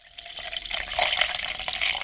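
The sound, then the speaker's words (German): Healing spring water pours steadily from a tap directly at the spring, a continuous bright splashing and gurgling that swells slightly midway, with no voices present. “Aber wer eine Wanderung wagt, der kann auch heute noch sein ganz eigenes Heilwasser direkt an der Quelle zapfen.”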